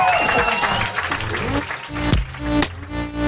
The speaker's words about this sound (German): Ihr könnt jetzt in die Hände klatschen oder sowas.